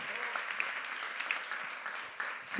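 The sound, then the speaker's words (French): A crowd applauds a speaker who has just spoken in public for the first time, a dense wash of many hands clapping at an even, moderate loudness with a few sharper individual claps standing out, sustained throughout with no speech. “Et vous pouvez encore applaudir parce que ce que vous ne savez pas, c'est que c'est sa première fois qu'il prenait la parole en public, en live sur ce sujet.”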